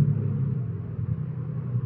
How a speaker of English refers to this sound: So I choked the car.